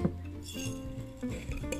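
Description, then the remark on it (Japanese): Clinks and light knocks of a glass jar holding tea leaves being handled, with a few ringing taps and soft rattles over about two seconds; no voices. “ちょっとね茶葉を持ってきますえー、と今ねガラスのね、あのー、瓶にね使いやすいように移してあるのがありまして”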